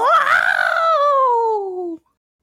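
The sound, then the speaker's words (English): A single loud, sustained vocal scream with a strong tonal pitch that wavers up then slowly falls over about two seconds before cutting off abruptly, a voice imitating a robot droid's shriek. “then does the droid scream, which I will try to do here.”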